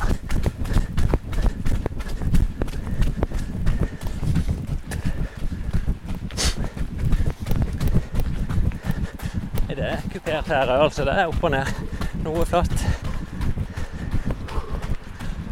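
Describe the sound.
A runner's quick, steady footfalls thud in a continuous rhythm, with heavy breathing and some wind buffeting mixed in, while a man talks over the top.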